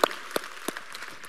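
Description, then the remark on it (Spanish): A few sharp, scattered handclaps ring out as applause for the fathers present, three distinct claps spaced unevenly, then taper off into a faint, hissy background with no voices. “Y por eso le damos gracias a Dios por cada uno de los papás que están aquí y les damos un fuerte aplauso, porque su labor es más importante que nunca el día de hoy.”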